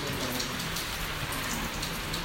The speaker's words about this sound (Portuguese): essa chuva que está caindo venha nos refrescar, venha a encher os nossos corações de muita alegria, de muita gratidão a Deus.